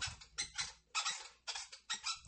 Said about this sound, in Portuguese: E olha o barulho da cadeira da Camila, ó.